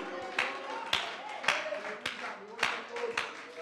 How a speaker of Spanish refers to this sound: Sí, bríndele ese aplauso porque Él es digno y merecedor de Él. Aleluya.